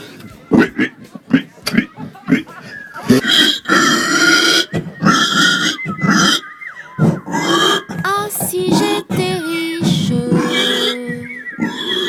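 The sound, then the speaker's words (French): A human voice imitates a pig giving birth with a burst of short, loud grunts and strained squeals, then drawn-out wavering cries, unaccompanied for about twelve seconds. “vous faites le cochon qui, qui met bas, vous faites comme ça.”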